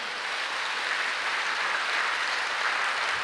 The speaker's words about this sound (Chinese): 给上帝一个最大的掌声。